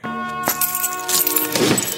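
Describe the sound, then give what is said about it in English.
Keys jingle and a metal lock is shaken and rattles, a bright clinking with ringing metallic tones that builds into busier shaking toward the end, with no voices. “Better jingle the keys, shake the lock.”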